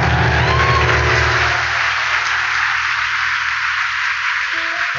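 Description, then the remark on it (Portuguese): An audience of women claps and cheers in a loud, steady wash of noise that lasts the whole five seconds, with scattered whoops and no clear speech over it. “Pode aplaudir, mulherada.”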